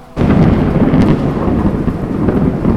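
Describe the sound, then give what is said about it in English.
A loud thunderstorm bursts in after a brief quiet start, with a heavy rumble of thunder rolling continuously over steady rain. “Lightning illuminates Kai's smile.”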